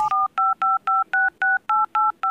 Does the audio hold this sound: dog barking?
no